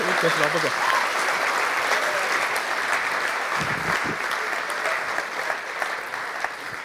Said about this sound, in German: Yes, danke vielmals. Applaus für euch.